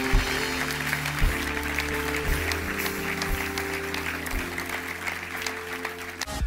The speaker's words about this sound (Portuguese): Será que podemos dar uma salva de palmas a estas pessoas?